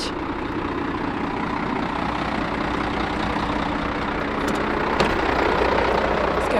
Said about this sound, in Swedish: står redo med sin enorma gröna lastbil. Ja, det är en ganska maffig bil det här. Ja, den är 23 meter lång är den.